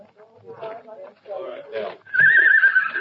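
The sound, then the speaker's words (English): A horse at a corral gives a loud, quavering whinny that rises and trembles for about a second, following a stretch of muffled talking. “Oh, sure. I can even hear it.”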